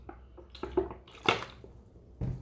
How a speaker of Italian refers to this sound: per cui il goccio d'acqua me lo prendo adesso.